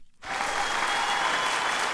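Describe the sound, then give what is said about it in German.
A brief, intense burst of applause from a crowd, starting abruptly after a moment of silence and holding steady and loud for under two seconds. “Danke, mal, danke, danke, ist ist das ist der, der, sehr, der sehr kurze, aber sehr aber intensive sehr Applaus.”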